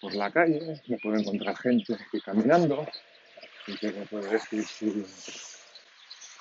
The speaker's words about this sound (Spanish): estoy caminando por la calle, lo envío a grabar, ahí lo publico directamente sin editar, con lo cual pues se pueden escuchar en este caso allí pájaros de fondo, pasan coches